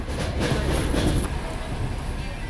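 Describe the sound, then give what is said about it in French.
A medical evacuation train staffed by caregivers in green gowns rolls steadily along the rails, a loud, continuous rumble with a hissing rush of air and faint rhythmic clatter, no voices. “Voilà ce que disait un des passagers de ces trains arpentés par des soignants en blouse verte.”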